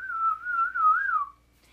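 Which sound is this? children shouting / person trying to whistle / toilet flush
person trying to whistle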